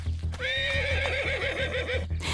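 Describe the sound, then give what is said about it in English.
A horse lets out a long, loud whinny while its hooves clop in a steady, quick rhythm underneath, ending with a short burst of noise. “She mounted a horse and rode from camp to camp and station to station, recruiting rebels.”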